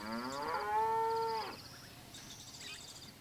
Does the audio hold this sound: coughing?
no